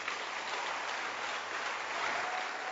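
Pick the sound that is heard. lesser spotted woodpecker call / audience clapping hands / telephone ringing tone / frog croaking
audience clapping hands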